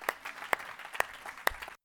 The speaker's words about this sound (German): Und ich finde, dafür dürft ihr euch selber einen Applaus geben.